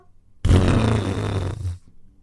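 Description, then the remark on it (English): A person blows a wet, sputtering raspberry to mimic the explosive bowel movement of Roxy, a dog, one loud, rough burst lasting about a second before cutting off, with no talking. “she, she blew it out, and she pooped, and it was a river.”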